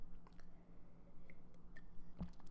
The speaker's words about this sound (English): hold on, let me take a sip of coffee here.